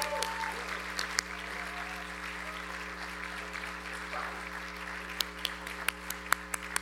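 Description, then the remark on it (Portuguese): An audience applauds with steady, dense clapping over a low constant hum, a few sharp louder claps standing out toward the end. “Tem que aplaudir mesmo.”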